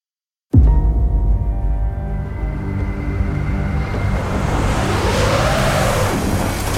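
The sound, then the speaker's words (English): After a brief silence, a car's steady engine drone cuts in with heavy rushing wind and snowstorm noise as the lone car drives up a snowy mountain, loud and continuous, building slightly toward the end, with no voices. “Hell of a storm.”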